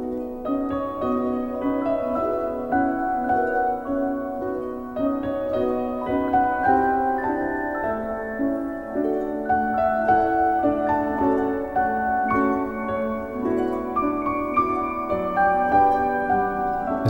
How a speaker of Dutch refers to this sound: eerste wat je hoort is de soundtrack van Remembering Childhood uit Hoek